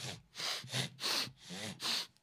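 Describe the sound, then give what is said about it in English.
A run of four loud sniffles right against the microphone from someone who cannot breathe through their nose, evenly spaced about half a second apart, each a breathy, hissing snuffle with no talking. “I can't, can't breathe because I'm trying not to do the sniffles because I can tell it might sound bad on the microphone if I do a sniffle.”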